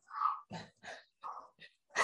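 A dog being babysat makes a series of odd little noises, six short whining, huffing bursts in uneven succession, fairly quiet, with no one talking.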